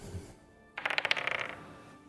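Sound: dice being rolled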